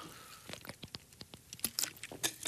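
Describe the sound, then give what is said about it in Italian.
Someone takes a sip of water: a quiet run of irregular clicks, light taps and small wet mouth sounds over about two seconds, with no talking. “Scusate, bevo un goccio d'acqua.”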